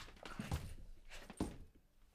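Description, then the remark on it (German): Two heavy, dull thumps about a second apart as a person stamps their feet alternately in place, demonstrating a dressage piaffe movement, with a faint background hum and no speech. “Du stampfst abwechselnd mit den Beinen.”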